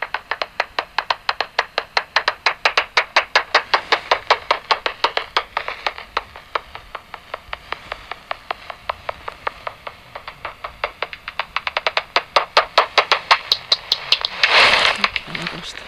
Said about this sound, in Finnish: Yleensä plepakko on silloin lähempänä saalista ja se tihentää sitä kaikuluotausta ja me kuullaan silloin tiheämpiä äänijaksoja. Sieltä taas lähestyy lepakkoa.